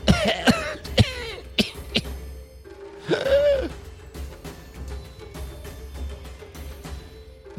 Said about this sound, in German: welche am Boden sitzt und immer noch vor sich hin hustet, sich an die Brust fasst